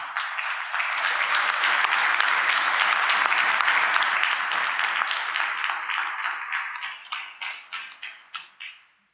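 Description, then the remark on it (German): An audience applauds in a dense, sustained burst of clapping that stays steady for several seconds, then thins out into scattered individual claps before stopping, as the third-placed candidate on the Sachsen-Anhalt list is called onto the stage. “Kommst du bitte mal auf die Bühne? Applaus”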